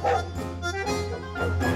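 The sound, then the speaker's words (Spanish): A large Dogo Argentino dog barks several times in quick, uneven succession, loud, with a steady low hum running underneath. “Si ladra, préstale atención, porque seguro, seguro que algo pasa.”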